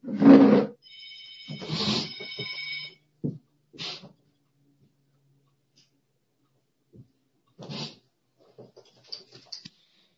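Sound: phone ringing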